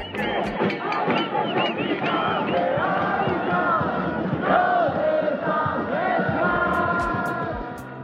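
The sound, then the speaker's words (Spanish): A large crowd of thousands of citizens protesting in the streets of Israel after a Knesset vote, shouting and chanting together, a dense, continuous roar of many raised voices with overlapping yells rising above the mass throughout. “Tras conocerse el resultado de la votación en la Knesset, miles de ciudadanos salieron a las calles.”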